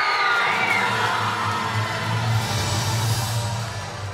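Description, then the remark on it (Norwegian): A packed hall audience in Zürich roars in a sustained, dense wash of voices, cheers mingling with lower booing, loud and continuous before easing slightly at the end, as FIFA president Sepp Blatter announces Russia as host of the 2018 World Cup on 2 December 2010. “Vi hørte jubel, men vi hørte så buing.”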